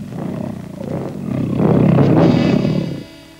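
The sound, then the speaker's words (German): A deep, rumbling tiger roar in a film trailer swells over about three seconds, loud, building to a peak before cutting off abruptly. No voices are heard. “Diese glühenden Augen durchdringen Zeit und Raum. Sie spähen in eine Welt, die jenseits der Vorstellungskraft liegt. Es sind die Augen des Tigers.”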